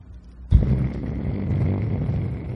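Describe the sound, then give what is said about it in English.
A voice imitates an electric device that keeps shaking while electricity is pumped into it, starting abruptly with a loud, messy low purring rumble that holds steady for about two seconds, a cluster of rough, buzzy noises rather than a clear pitch. “So as long as you're basically as long as you're pumping electricity into this thing, it keeps shaking and it makes this.”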